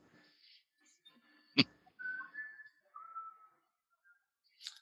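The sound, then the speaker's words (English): A faint whistle from the back of a cave sounds in two short tonal bursts, echoing softly, with a sharp knock just before and quiet background around it. “Yeah, it sounds like it's coming from the back of the cave.”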